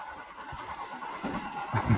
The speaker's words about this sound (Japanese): えっと、僕が、その、入る側の視点になった時に、また電車やん。